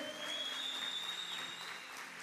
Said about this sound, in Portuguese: Pode aplaudir bem forte o nome dele.